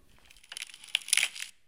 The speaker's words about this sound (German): Und das ist einfach das Geräusch gewesen, wie das OnePlus 10 Pro in zwei Teile zerbrochen wurde. Beziehungsweise das OnePlus 10 Pro wurde in ein faltbares Smartphone umgewandelt, sagen wir es so.